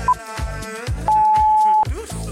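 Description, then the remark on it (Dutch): A short electronic beep, then a loud, steady beep of nearly a second, a workout interval timer signal marking the move to a new exercise block, sounds over upbeat music with a thumping beat. “Als jij dit piepje hoort Betekent eh, dat we naar een nieuw blokje gaan.”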